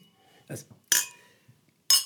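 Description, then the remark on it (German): Two bright, ringing clinks of glasses touching in a toast, about a second apart, with a short murmured voice just before the first. “Äh, sehr zum Wohl, die Herren. Zum Wohl, sehr zum Wohl.”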